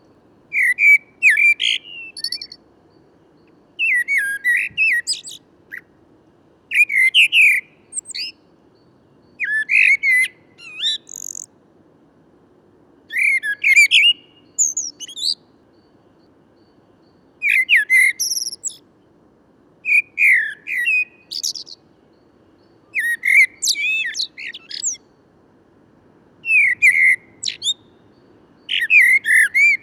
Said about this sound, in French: Tout d'abord, le merle noir. Il possède un chant flûté, assez doux, en phrases composées changeantes en permanence.